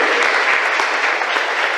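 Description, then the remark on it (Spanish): A crowd applauds the patron saint, Hermano Pedro, steadily, a dense wash of many hands clapping at once, loud and even throughout with no talking over it. “Muy bien, un aplauso al patrono de ustedes, hermano Pedro.”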